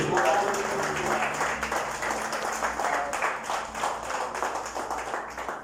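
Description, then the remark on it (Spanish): A church audience breaks into steady applause for Jesus one evening, many hands clapping in a dense, continuous patter that holds for several seconds, with some voices murmuring underneath. “Denle un aplauso a Jesús, por favor, esta noche.”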